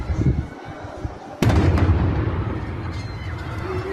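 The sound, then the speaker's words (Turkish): A sudden, loud blast erupts partway through, followed by a heavy, lingering rumble, with background noise and murmuring before it: portable picnic gas canisters exploding on the terrace floor of an apartment building in Diyarbakır, Turkey, after embers from a barbecue grill fell on them. “O tüpler binanın teras katında bomba gibi patladı.”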